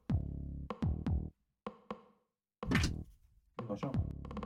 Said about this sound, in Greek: Έλα, κλείσε την πόρτα